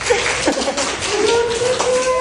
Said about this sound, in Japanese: 素晴らしい拍手